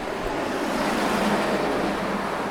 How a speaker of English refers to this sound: Oh, here's the bus. Oh, and here's the bus again.